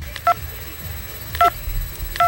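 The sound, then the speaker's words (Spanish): Three short electronic phone keypad beeps, each a clear two-tone chirp, spaced unevenly as someone types on a phone to read a WhatsApp message, over a low background hum. “Voy a leer yo lo que pone el mensaje”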